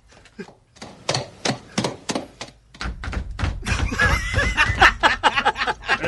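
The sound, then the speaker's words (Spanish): A horse hoofbeat sound effect of sharp knocks in an uneven, limping rhythm, growing busier toward the end as people laugh over it. “es un caballo cojo, parece.”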